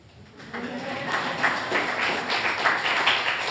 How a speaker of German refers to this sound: Kann ruhig klatschen.